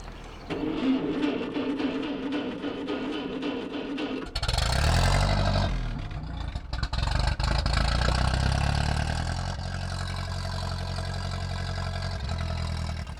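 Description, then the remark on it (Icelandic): A tractor engine runs, idling with a steady throb before revving up into a louder, rough rumbling clatter that carries on without pause. “Þar fæ ég að kera traktor í fyrsta skipti.”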